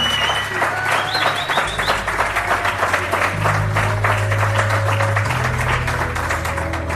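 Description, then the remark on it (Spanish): An audience at a science event organized by the SIPE group applauds, a dense, steady wash of many hands clapping that holds at an even, fairly loud level for about seven seconds, with a low humming tone underneath. “Yo voy a pedir un aplauso para que la gente no se piense que estamos locos aquí solos hablando ante el micrófono.”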